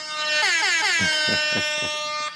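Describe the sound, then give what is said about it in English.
A loud reggae-style air horn blares in repeated rapid bursts, its pitch sweeping and stuttering in a rhythmic pattern before one final blast, with no one speaking. “Can we get the reggae horn for that?”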